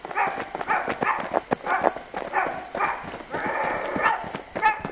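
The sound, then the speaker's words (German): Quick, rhythmic footsteps pound along as two thieves run away, a steady stream of sharp, fairly loud impacts over a continuous background rumble, with no one talking. “Die beiden Diebe bekamen Angst und fingen an wegzulaufen.”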